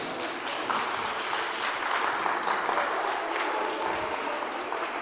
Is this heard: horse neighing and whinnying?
no